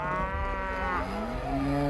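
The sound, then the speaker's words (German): Cows moo in a long, sustained low call that fills the whole moment, loud, with a second lowing voice overlapping as the pitch slides slightly. “Der Graf rief genervt seine Krieger und gemeinsam ritten sie dem Feind hinterher, kamen den Heimat mit den wiedererbeuteten Kühen zurück und feierten sich sehr”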